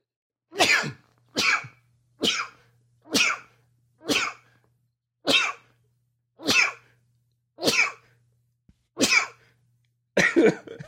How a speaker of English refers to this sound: Forty fucking sneezes in a row there.